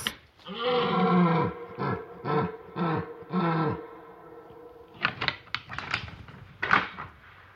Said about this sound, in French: trois cerfs et laf entament leur brame pour séduire les biches dissimulées un peu plus loin dans le sous-bois